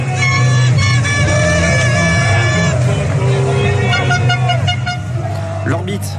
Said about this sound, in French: Les Italiens l'emportent en finale de l'Euro. Euh, victoire au bout de la nuit face à l'Angleterre après une séance de tir au but. Victoire dignement fêtée, vous l'entendez euh, dans les rues de Milan.